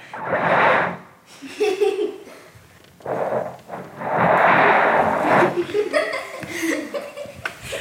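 Someone tries to blow an alphorn: several long, breathy rushes of air with only brief, wavering low buzzy tones breaking through, mixed with wheezy laughter.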